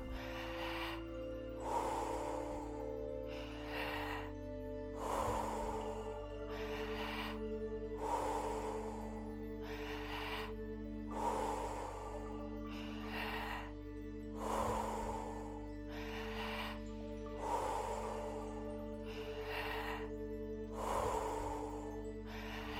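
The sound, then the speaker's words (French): Deep, forceful breaths in a steady rapid rhythm, roughly one every second and a half, loud, repeating over a low sustained musical drone with no talking, during a Wim Hof method breathing exercise. “Encore 10. On donne tout ce qu'on a.”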